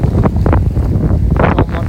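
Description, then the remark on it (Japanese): Steady wind buffets the microphone at an ocean shoreline in Hawaii just after 6 a.m. at dawn, a constant low rumble with surging bursts of hiss that could be waves washing in. “6時過ぎかに小野波打ち際に来ましたもうねちょうど月が落ちてきて日が昇って後ろからは日が昇ってきて”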